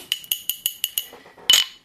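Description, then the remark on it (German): Whisky glasses clink in a toast in a quick, even series of about six bright, ringing taps, followed by a louder, fuller clink near the end. Clear, with no voices. “Und jetzt gibt es erstmal Whisky. Moment, ihr könnt euch auch was dazu einschenken.”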